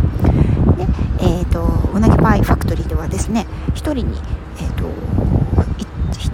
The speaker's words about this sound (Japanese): 今ちょっと施設の外に出てきたのでう風の音が入ってるかもしれませんけど